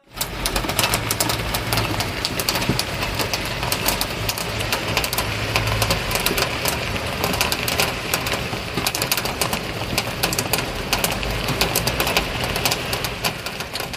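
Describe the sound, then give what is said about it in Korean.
Steady rain drums on the thin tin-like metal of an air conditioner's outdoor unit, a dense, continuous pattering of sharp taps with a low rumble underneath, no voices, holding evenly loud throughout. “에어컨 실외기 위에 떨어지는 빗소리입니다.”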